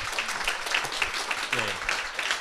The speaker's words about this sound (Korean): 일단 여기서 박수 한번 쳐야 되나요? 네, 박수 한번.